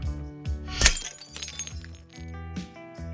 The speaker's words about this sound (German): haben wir zwei Gläser auf harten Untergrund geworfen und mit unserem Rode NTG4 aufgenommen